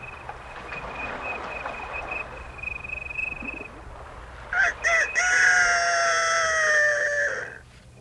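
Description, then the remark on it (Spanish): A rooster crows once, loud, a long drawn-out call with a couple of short lead-in notes, over a steady outdoor background hum with a faint high tone early on. “Y el ratón no tuvo más remedio que esperar a que cantara el gallo.”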